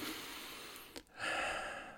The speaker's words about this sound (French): Ok, maintenant tu peux revenir ici, prendre une profonde respiration